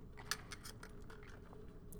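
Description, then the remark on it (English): Quiet sipping of a black iced coffee: a string of short wet slurps and crackly clicks from the lips, with no talking. “Plus, I have a little sip of my uh, iced coffee, my black iced coffee.”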